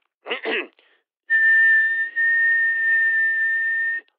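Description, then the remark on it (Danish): A quick double burst of breathy noise, then a long, steady, clear whistled tone held for nearly three seconds, with no talking. “det var sådan set bare en whistleblower fra Facebook, der sendte sit paringskald ud i æderen”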